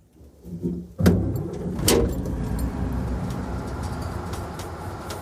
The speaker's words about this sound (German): Angesteckt von der guten Laune des lustigen kleinen Busfahrers steigen sie ein.